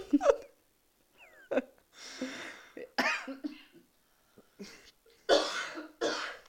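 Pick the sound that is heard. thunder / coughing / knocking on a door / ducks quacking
coughing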